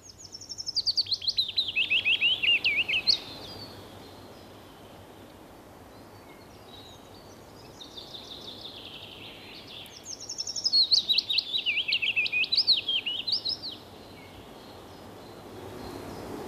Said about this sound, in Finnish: Kuunnellaan vielä kertaalleen pajulintu ja sitten mennään eteenpäin. Olemme tässä nyt muutamaa lintua yrittäneet opettaa samalla, mutta vielä se pajulintu.